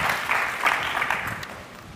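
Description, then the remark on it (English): A crowd at Woodside Church applauds steadily to welcome the preacher up, many hands clapping in a dense, even patter that holds at moderate loudness for the full two seconds with no voices. “So, if I can have a big round of applause and welcome him up.”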